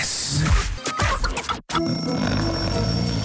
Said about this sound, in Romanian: suna ceasul. Vai, ursuleții încă dorm!